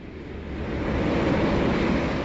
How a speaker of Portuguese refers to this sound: a família Lúcius, em companhia do amigo Caio Fabricius, já se encontra na grandiosa embarcação romana que navega pelas águas calmas do Mar Egeu em direção à capital do Império.